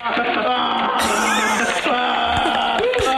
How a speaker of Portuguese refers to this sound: Vai, comecei aos gritos. Assim. E até a bola entrar na baliza foi isto.